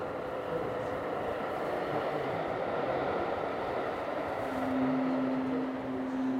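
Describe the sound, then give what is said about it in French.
A train rumbles past in Angoulême, a steady, loud roar of wheels and engine noise, with a sustained humming tone rising in toward the end. “C'est le train.”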